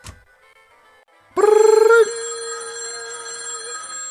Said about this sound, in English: The phone rings, and he picks it up.